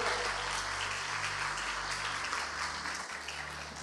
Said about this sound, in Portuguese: Dê uma linda salva de palmas para o Senhor.